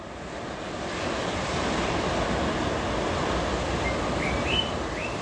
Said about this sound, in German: Da hört man Vogelstimmen und das Rauschen ist mehr, nehme ich an. Das ist ganz genau so. Das ist morgens sehr früh, um fünf, vielleicht sogar noch ein bisschen früher. Und da fangen die Vögel an, sozusagen die erste Party zu veranstalten,